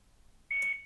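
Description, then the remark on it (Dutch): A multicooker gives a single steady electronic beep as its start button is pressed to begin a 3-hour slow-cook program, a clear high tone lasting about a quarter second, loud after a quiet moment with no talking. “Oké, eh, ik ga de startfunctie indrukken, want het programma staat juist slow cooken 3 uur.”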